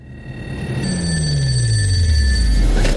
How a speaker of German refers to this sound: Doch statt den Präsidenten zu beschützen, sitzt er nur im Keller und bewacht ein Telefon, das eh nie klingelt. Aber es wäre ja keine vielversprechende Actionserie, wenn dieses Telefon nicht doch irgendwann klingeln würde.